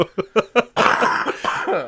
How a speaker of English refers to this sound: pardon me. I've been sick for the last like three weeks, so uh, pardon the cough.